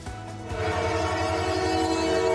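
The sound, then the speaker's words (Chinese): The Canadian Pacific Railway Christmas train, lit with LED lights at night, rumbles past as its horn blows a loud, steady chord of layered tones that holds without a break. There is no talking. “火车呼啸而过，夜间车身闪着 LED 灯光，装饰椰蛋树和礼物，浓浓节庆氛围。”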